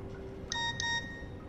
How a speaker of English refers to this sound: And uh, as as you send the text you hear from somewhere behind you in the corridor the bip bip uh, the SMS sound from an old Nokia phone.